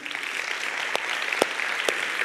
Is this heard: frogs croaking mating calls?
no